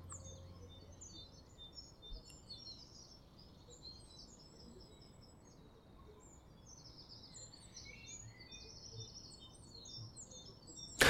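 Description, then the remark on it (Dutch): Many small birds chirp and twitter at once in a dense, continuous outdoor chorus over a steady low background rumble of highway traffic. “Om me heen kwetteren de vogels weer alsof het hun laatste kans is om zich te laten horen.”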